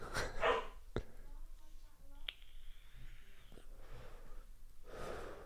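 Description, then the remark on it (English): A female dog barks a few short times, the barks fairly faint and spaced irregularly over a quiet background with a brief high tone in between. “is she barking at?”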